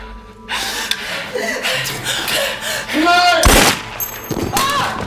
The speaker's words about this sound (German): Diesen Schuss hatte Sabine für sich selbst aufbewahrt.